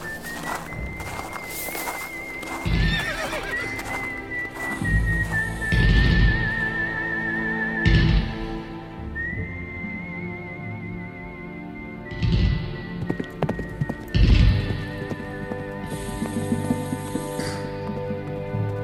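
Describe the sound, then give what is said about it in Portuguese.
A horse snorts and whinnies while its hooves clop in scattered, heavy thuds, over a steady high whistling tone and a low rumbling backdrop. “Vamos pegar o cavalo e dar continuidade no plano.”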